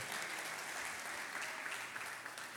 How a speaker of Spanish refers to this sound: Denle fuerte ese aplauso al Señor, el que era, el que es y el que ha de venir.